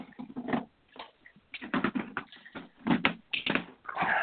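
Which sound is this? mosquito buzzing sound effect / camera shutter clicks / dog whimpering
dog whimpering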